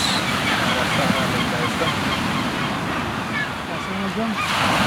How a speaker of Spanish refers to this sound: Pelícanos.